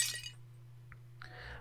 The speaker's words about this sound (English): After that, like six seconds of this ball just growing so large, you hear a sound like glass breaking.